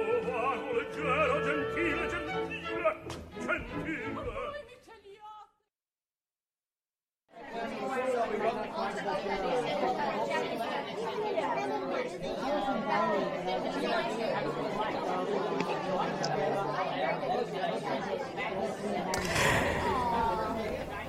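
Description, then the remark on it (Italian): A dense murmur of many overlapping voices fills a foyer, steady and fairly loud, broken by a brief silence of about two seconds before the crowd chatter resumes. “Come sentite dal sottofondo, siamo in un foyer.”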